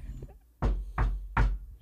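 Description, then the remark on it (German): Three quick, evenly spaced knocks of a person rapping knuckles on their own head, fairly loud with a dull thud. There is no talking, just a faint background hum. “Klopf mal an deinen Kopf.”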